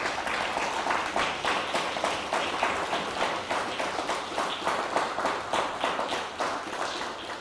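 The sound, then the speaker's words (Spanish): Sustained applause from an audience: dense, steady clapping with a rapid rhythmic patter, fairly loud and continuous throughout, with no voices over it. “Un fuerte aplauso a todos, a todos, a todos.”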